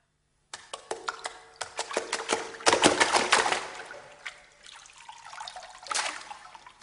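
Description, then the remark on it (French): Water trickles and splashes in a steady, bubbling stream of small irregular plops and gurgles, busiest in the middle, then easing off before a brief renewed surge. No voices are heard. “Aujourd'hui, j'ai le plaisir d'accueillir Fabrice Marandola pour une édition consacrée au bruit de l'eau.”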